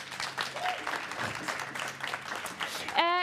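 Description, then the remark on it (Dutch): A crowd applauds loudly, dense clapping for a few seconds, with a brief tonal note rising near the end. “Mag ik een heel hard applaus”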